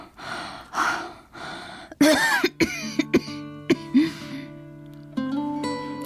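A run of harsh coughs in quick succession from someone ill at night with a high fever and muscle aches, followed by more hacking coughs and strained breaths as a soft sustained musical tone plays underneath.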